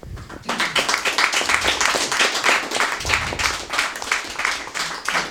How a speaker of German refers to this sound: Ich glaube, Angelika hat sich diesen Applaus verdient.